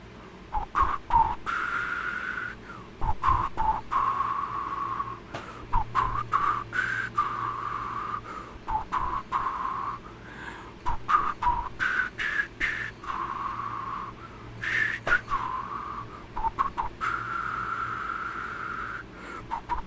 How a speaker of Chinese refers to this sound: 好，为什么我要用这个单元？就是因为我超级不会吹口哨，所以我才会用这个单元，好不好？